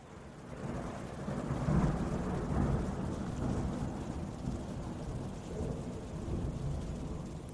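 A thunderstorm: deep, rolling thunder rumbles on and off over a steady wash of heavy rain, fairly loud and continuous throughout, with no voices.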